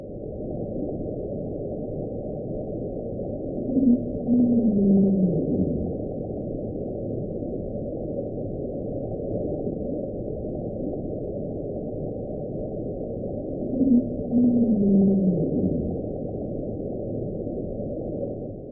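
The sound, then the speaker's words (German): A deep, muffled underwater rumble of small icebergs breaking apart, recorded by NOAA microphones placed in the ocean, with two eerie descending groans about ten seconds apart rising over a steady low drone. No voices. “Aber dann, es sind ja Wissenschaftler, haben sie herausgefunden, dass das Geräusche waren von brechenden Eisbergen.”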